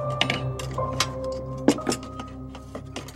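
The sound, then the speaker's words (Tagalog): Dishes being washed after lunch: a run of sharp clinks and clatters of plates, glasses, spoons and forks, irregular and bright, with a low steady hum underneath and no talking. “Pagkatapos kumain, ay hinugasan ni Danica ang mga plato, baso at mga kutsara at tilidor.”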